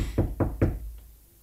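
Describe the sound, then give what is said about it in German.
Three firm, evenly spaced knocks on a wooden door, fairly loud, followed by a faint fourth tap and quiet room tone. “Hörst du? Ja. Mach nicht auf.”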